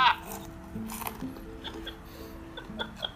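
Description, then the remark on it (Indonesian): Crisp crunching of home-fried emping crackers being chewed, a handful of sharp irregular crunches spread across the moment, with soft talking faintly underneath. “kalau ada bunyi kriuk-kriuk gue lagi makan emping yang tadi gue goreng”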